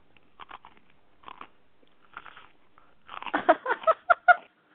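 Someone bites and chews food: a few soft crunchy bites at first, then a louder burst of rapid, crisp chewing and munching near the end, with no talking.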